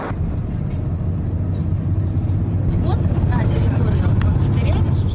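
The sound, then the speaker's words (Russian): A bus drives along with a steady, low engine rumble and road noise that fills the whole stretch without letting up, with faint muffled voices blending into the drone. “Садимся в автобус и в путь.”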